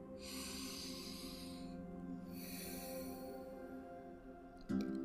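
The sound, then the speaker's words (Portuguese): A slow, deep breath drawn in and then let out at the start of a guided prayer practice, two long airy rushes over a low steady hum, with no talking. “Vamos começar com uma respiração profunda”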